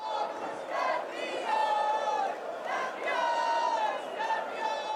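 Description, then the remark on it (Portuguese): Thousands of Benfica football fans celebrating the national championship title at the Marquês, voices merging into loud sustained chanting and cheering with rising, drawn-out shouted tones, swelling in waves throughout. “Milhares de benfiquistas Esperaram quatro anos por este momento.”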